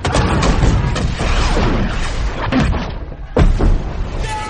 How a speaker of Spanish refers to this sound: Desde las galeras varios disparos de cañón nos pusieron en guardia.